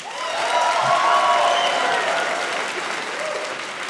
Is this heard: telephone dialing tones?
no